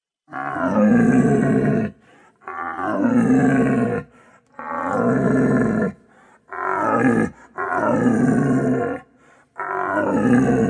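An old red deer stag in rut roars repeatedly from the alpine meadow of its rutting ground, six long, deep, guttural bellows in steady succession with short pauses between, loud, with no other sounds around them.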